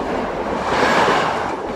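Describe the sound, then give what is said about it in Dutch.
An express train rushes through Marienberg station without stopping, a loud, steady roar of wheels and rushing air for the whole moment, with no voices. “Want ehm, als ik hier later aankom, dan ehm, komt hier een sneltrein en die stopt hier niet.”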